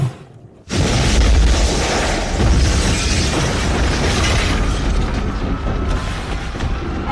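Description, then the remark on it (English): After a brief quiet moment, a massive gas tanker explosion bursts in suddenly, then keeps roaring as a dense, crackling rumble with deep low-end boom that barely fades. The tanker, stuck under a bridge near Tambo Memorial Hospital in South Africa, leaked gas that caught fire and exploded on 24 December 2022. “Within two hours, the gas catches fire and explodes.”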